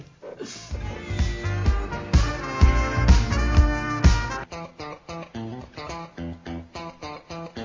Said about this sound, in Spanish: Vamos a, escuchar un poquito de música. Hoy nos musicaliza, ha elegido la música Nico. Así que vamos a escuchar un par este, de canciones antes de seguir con el próximo bloque.